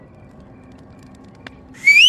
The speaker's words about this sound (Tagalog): Sumipol bigla yung boat operator. Pinapasunod na kami. Sumama na lang kami habang naglalakad siya papunta kami sa pampang. Walang imik si kuya pero sumisipol-sipol lang siya.